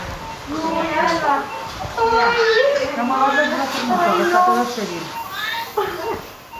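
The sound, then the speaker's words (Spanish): A newborn baby girl, just lifted out during a caesarean surgery, cries in a steady run of high, wavering wails, fairly loud, with little pause between them across the whole stretch. “Está llorando.”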